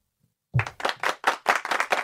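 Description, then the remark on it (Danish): A short burst of hand clapping from a few people nearby, quick and irregular claps starting abruptly after a brief silence and continuing steadily to the end. “Så vi faktisk øh, lige øh, give en klapsalve. Kan vi ikke give en klapsalve på, øh, Nå, på ja, til din veninde, der har klippet afsnittet?”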